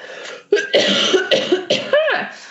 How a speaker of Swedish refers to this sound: prosit, jag hostade.